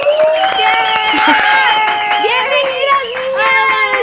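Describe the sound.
A small audience on the show Pinky Promise claps and cheers for about four seconds to welcome guests, with a steady patter of applause under high, excited whoops and shouting voices that rise and fall throughout.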